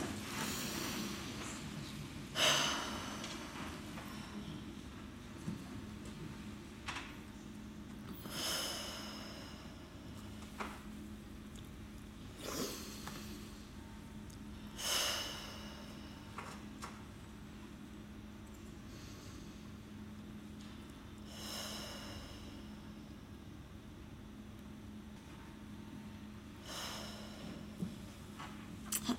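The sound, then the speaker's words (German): Slow, quiet breathing repeats about five or six times, each soft airy inhale through the nose and exhale through the mouth separated by pauses, over a faint steady hum, with no talking. “Und zwar einfach mal fünfmal durch die Nase einatmen und durch den Mund wieder aus.”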